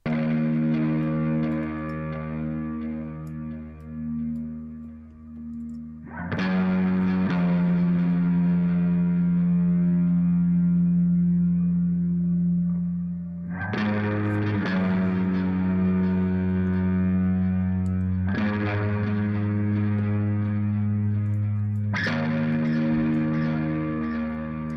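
A heavily distorted, sustained instrumental theme, the protagonist's theme from a film score shown isolated in a Rolling Stone interview, plays alone, thick low chords swelling and shifting with sharp new attacks every few seconds, saturated and buzzing throughout with no voices.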